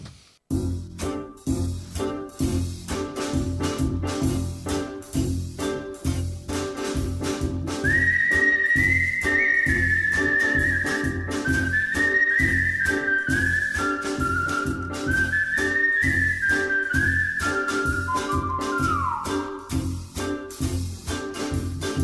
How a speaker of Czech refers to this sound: milí posluchači, po písničce budeme pokračovat.